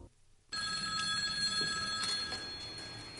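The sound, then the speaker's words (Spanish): A telephone bell rings loudly in a scene from the Spanish series Arde Madrid, bursting in abruptly after a brief quiet moment and trilling continuously for a few seconds, with no voices. “Sí, dígame. Manolo, al teléfono.”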